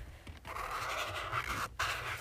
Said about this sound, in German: Und dann haben wir noch die Markierspitze. Ich male damit einfach ein Herz. Ja, genau, wie jede Markier, wie jeder Markierer kann man da so ein bisschen so die dünnere Seite verwenden.